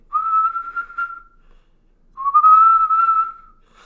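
Two long, steady whistled notes separated by a short pause, each holding a clear pitch with a slight rise at the start, fairly loud with no talking.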